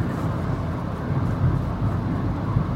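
Steady, deep road rumble fills the inside of a moving car, a constant low drone with faint hiss above it and no voices, holding at an even level throughout.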